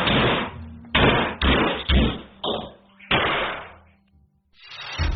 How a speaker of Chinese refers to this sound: 不久，连续不断的打砸声从一层一家商铺中传出。